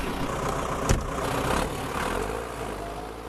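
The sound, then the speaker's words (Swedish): A tractor-mounted snow blower's engine runs steadily as it is used to plow snow, a constant low rumble with a brief sharp knock near the start and no voices. “Då ska jag inte störa längre, du får hoppa in i din traktorslunga här nu och, och ploga på.”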